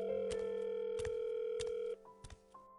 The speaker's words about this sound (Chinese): 可电话拨通之后，那边一直是忙音，也没有人接。